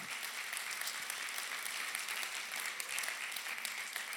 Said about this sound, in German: Hey, können wir uns nochmal gegenseitig einen Applaus geben? So stark.